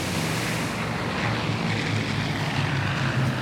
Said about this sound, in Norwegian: Nå var endelig Orion-flyet fra Kystvakten kommet inn i området. Flyet var utstyrt med varmesøkende radar.